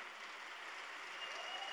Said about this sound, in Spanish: ¿Por qué no le das el mejor aplauso de este domingo? No, el mejor aplauso de este fin de semana